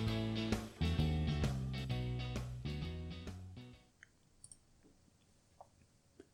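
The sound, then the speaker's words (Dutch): A tinkling music box tune plays for a few seconds and breaks off, followed by a handful of soft mechanical clicks as the key of the music box is wound once more, at Malmaison near Paris in April 1814. “draaide het sleuteltje van haar muziekdoosje nog een keer om maar het voelde verkeerd om te genieten van de mechanische klanken die gemaakt waren voor tijden van vrede, geluk en”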